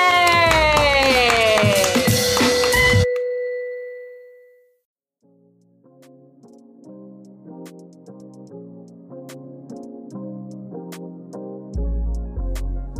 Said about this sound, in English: Um, and with that, let's all clap us out. Yay! Yay!